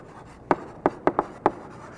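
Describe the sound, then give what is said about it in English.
Several quick scratchy strokes of a pen or marker drawing a line down through the middle of a diagram and labeling one side as the physical, five short taps and scrapes in an uneven rhythm, fairly quiet, with no talking. “So I'm just going to draw a little line down through the middle and label this one side over here next to the body as the physical.”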